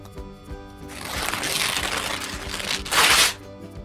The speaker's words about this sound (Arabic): فجأة ارتفع صوت صراخ ديسوم وبدا يمزق الورقه بمخالبه حتى اصبحت فتاه اوراق